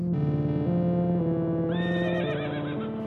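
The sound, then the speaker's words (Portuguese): A horse whinnies loudly, a long wavering neigh that rises into a shaky, quavering squeal before trailing off, with no talking. The horses are anxious. “Gente, os cavalos estão ansiosos.”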